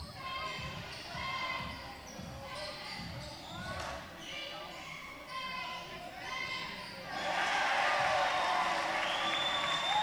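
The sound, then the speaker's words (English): Recorded crowd noise, played in the background from the broadcast station, fills the space as a steady murmur, with sneaker squeaks and ball bounces over it, before the crowd sound swells louder and brighter for the last few seconds. “crowd noise we're hearing. They played it the last game. It's background. They're playing it from the station.”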